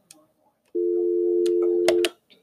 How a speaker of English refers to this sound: Oh, look, y'all done heard the dial tone.